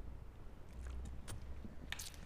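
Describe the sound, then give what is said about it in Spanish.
Someone drinks water: a few quiet, wet swallowing and sipping sounds with soft mouth clicks over a low background hum, no talking. “Dejen tomó agua raza porque no, hombre.”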